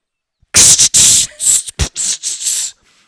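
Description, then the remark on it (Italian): Harsh, hissing bursts of a metal hook being ground against a wheel, throwing sparks, as for Captain Hook's hook in the film Hook; several rough surges in quick succession with short gaps, loud, with no talking. “Questo è il suono di quando viene smussato l'uncino a, a Capitan Uncino in Hook.”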